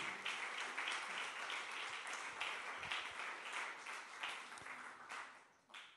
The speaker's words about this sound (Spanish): ¿Está contento o no está contento? Pues entonces, dele un aplauso a Dios porque usted está contento.